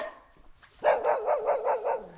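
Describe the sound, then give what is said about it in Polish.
Fenced-in dogs bark in a rapid, steady volley of about six loud yaps, with no talking over them; the barking starts abruptly after a brief quiet moment. “Psy ogrodzone.”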